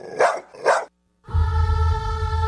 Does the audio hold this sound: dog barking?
yes